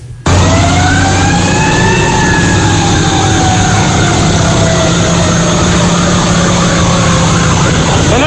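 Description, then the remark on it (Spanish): The siren of a Santiago fire department truck wails loudly and continuously, its pitch sweeping slowly up and down over a heavy engine rumble, steady on the main road of La Otra Banda throughout as vehicles are cleared out of its way. “vamos detrás de un camión de los bomberos de Santiago por la carretera principal de la otra banda, evadiendo este obstáculo, eh, mandando a quitar vehículos del medio, personas que controlan las la sirena no se detienen.”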